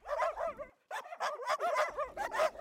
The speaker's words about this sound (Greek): Τα χαρούμενα γαυγίσματα των σκυλιών μας υποδέχονται στην πόρτα του σπιτιού.